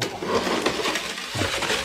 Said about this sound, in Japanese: 雪かきのノイズ入ると思いますが。